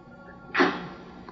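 A single sneeze bursts out suddenly, a loud, breathy explosion that fades quickly into quiet room tone, with no talking around it.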